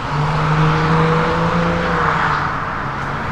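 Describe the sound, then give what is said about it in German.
Steady, loud roar of city traffic with cars and motorcycles, with a sustained low motor hum running through the whole stretch and no voices. “Und in der Stadt, da riecht es immer so nach Abgase von den Autos, von den Motorradfahrern.”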